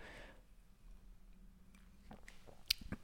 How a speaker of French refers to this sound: Petite gorgée de café.